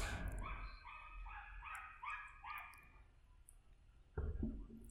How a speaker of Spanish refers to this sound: Hay un perro ahí atrás. Perdón. Eh, está opinando, está opinando. Voy a esperar, que. Se está peleando con, alguien. Son dos. Ah, son, dos, se están peleando.